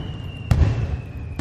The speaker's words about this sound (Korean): 불꽃은 경쾌하면서도 터지는 소리가 묵직했다.